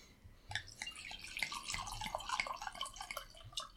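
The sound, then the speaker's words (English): Red wine poured into a glass: a steady, bright trickling gurgle with splashy drips that runs for a few seconds, alone with no talking. “Let's pour it and find out.”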